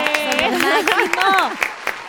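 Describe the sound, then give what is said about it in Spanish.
A studio audience claps steadily, a dense patter of hand claps running for about two seconds, while a raised voice calls out over the applause. “También les agradezco y un aplauso porque se agradece cuando de verdad vienen todos los invitados”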